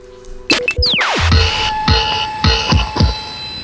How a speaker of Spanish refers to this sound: Vamos a escuchar ese cantito electoral.